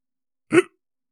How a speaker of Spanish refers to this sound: ¿Con hipo? Sí, sí, güey.